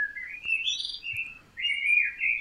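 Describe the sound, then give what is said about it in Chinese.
A common blackbird sings a rich, fluting warble of varied mid-high phrases, with a short pause midway before a second clear, rising-and-falling phrase. No one speaks over it. “哎，乌冬鸟是一种很常见的黑鸟。”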